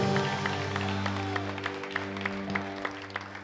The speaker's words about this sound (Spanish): Iglesia, dale un fuerte aplauso al Señor.